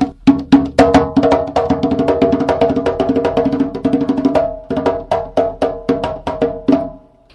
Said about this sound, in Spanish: ¿Y cómo suena el tambor alegre y por qué se llama así? suena algo así.